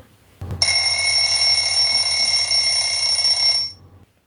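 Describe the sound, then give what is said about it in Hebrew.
A loud telephone ring, heard as a call is placed to a house in Kiryat Tivon, sounds as one continuous bell-like burst lasting about three seconds right after a brief click, then cuts off into quiet. No voices are heard. “צלצלתי לבית כצנלסון בקריאת טבעון.”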